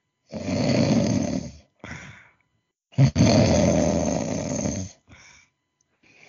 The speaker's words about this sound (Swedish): Jöns däremot sover sin väpnade sömn under tunga snarkningar.